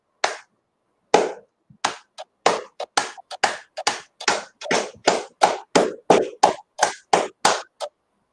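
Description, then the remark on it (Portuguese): A single person's slow clap builds up: a few sharp, spaced claps at first, then quickening into a steady, faster rhythm of crisp handclaps, with no talking. “Foi tão bonito que eu perdi até as palavras, essa, esses aplausos aí.”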